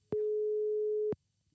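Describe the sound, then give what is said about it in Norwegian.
A single steady electronic ringing tone of an outgoing phone call sounds for about one second, clear and moderately loud, beginning and ending with a faint click, with no talking over it. “Så jeg foreslår at vi ringer til dem, og så hører vi litt om eh, hva de tenker om treningsopplegget.”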